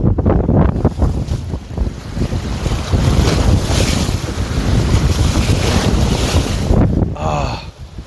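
Steady wind buffets the microphone over the wash of open sea, waves rushing and splashing beside a moving boat, loud and continuous for the whole stretch with no voices.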